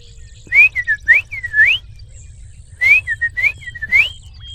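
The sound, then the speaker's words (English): A blue nightingale calls in two close, clear bursts of sliding whistled notes, each phrase a quick run of rising and falling chirps, over a faint low hum. “I bet you're curious about what the uh, the call for a blue nightingale actually sounds like.”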